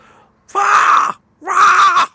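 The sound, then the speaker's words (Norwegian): Two loud, harsh screams from a common red fox, each drawn out for about half a second with a short pause between them, raspy with no other sounds. “Det fins jo flere revearter, men den vanlige rødreven den har en sånn”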